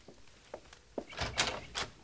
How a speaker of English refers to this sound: open the door.